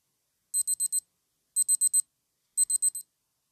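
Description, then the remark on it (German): An alarm clock beeping to signal the end of a 10-second timer: three quick bursts of four high electronic beeps each, evenly spaced with short pauses between groups, clear with no voices. “Also der Piepton hört sich dann halt so an.”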